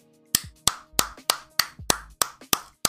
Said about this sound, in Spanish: Vamos, voy, a, apartarme del micro para no petar los oídos, pero vamos a darles todos un aplauso ahora, por favor.